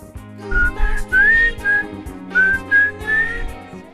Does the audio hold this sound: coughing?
no